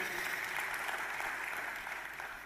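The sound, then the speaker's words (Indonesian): An audience applauds for God steadily, a dense wash of many hands clapping at a constant loud level that eases slightly toward the end, with no one speaking. “Sekali lagi tepuk tangan yang luar biasa buat Tuhan.”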